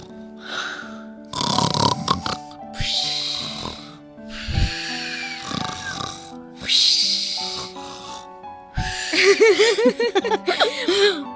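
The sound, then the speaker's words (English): A person imitates snoring, making a series of loud, rasping inhale-and-snort sounds in an uneven rhythm, ending with a burst of giggly, warbling noises. “And do you remember when the cap seller was sleeping, he was snoring.”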